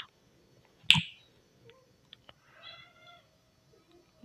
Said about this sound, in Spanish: Lo siento, por esta interrupción, pero mi gata está intentando hacer algo para lo que no es muy hábil, que es una bola de una pila de libros.